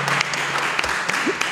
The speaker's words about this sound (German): Ja. Vielen Dank. Nochmal einen großen Applaus für euch beide. Ganz, ganz großartig.